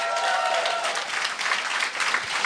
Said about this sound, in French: J'aimerais ça qu'on l'applaudisse.